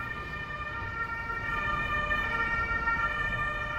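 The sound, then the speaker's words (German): An ambulance siren sounds steadily and fairly loud throughout as the ambulance carries a patient to the Asklepios-Klinik St. Georg one kilometre away, a sustained tonal wail over a low rumble of road traffic, with no one speaking. “Der Rettungswagen bringt Mehmet Yilmaz in die ein Kilometer entfernte Asklepios-Klinik St. Georg.”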